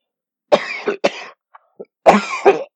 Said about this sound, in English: Hold on just a moment. I'm sorry. I'm also have a little bit of a hangover cough from a cold I had on top of the migraine.